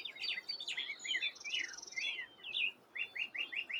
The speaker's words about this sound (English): Um, this is from a set of tree ears. That's a, a um, black headed grosbeak, which is kind of a